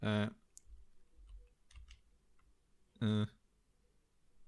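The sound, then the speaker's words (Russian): Soft, scattered clicks of computer typing and mouse use tap along quietly as someone types into the Yandex search engine, framed by two short, loud hummed vocal sounds from a person, one at the start and one midway. “И пишу, значит.”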